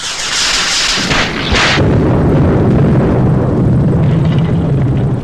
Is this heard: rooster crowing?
no